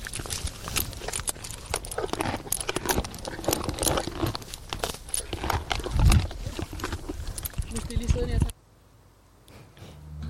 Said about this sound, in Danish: Det du hørte var øh, lyden af hestene fra Kandested Naturredning